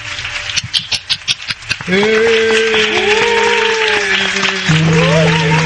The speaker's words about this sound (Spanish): Así que desde ya, comencemos las predicciones de los Oh My Goodness Award 2015 y quiero un aplauso espontáneo de todos presentes.